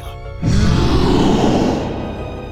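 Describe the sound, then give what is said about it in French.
A loud, deep, snarling roar from a giant werewolf bursts in suddenly and holds for over a second, rough and growling, before easing off into a lower rumble. “Soudain, un rugissement effrayant se fait entendre. Une espèce de loup-garou géant apparaît toute canine dressée, sans prévenir.”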